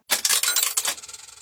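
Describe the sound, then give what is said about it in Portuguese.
A handful of coins clatters into a tip jar, a Christmas contribution box, in a quick burst of bright metallic clinks that tapers into a few scattered jingles over about a second, with no voices. “Continue contribuindo com a caixinha da Teacher Milena para o Natal”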